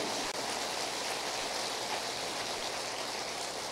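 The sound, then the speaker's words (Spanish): A church audience applauds God during a sermon in a dense, steady wash of clapping that holds at an even, fairly loud level for the whole stretch, with no voices heard over it. “Denle un aplauso a Él, lo merece.”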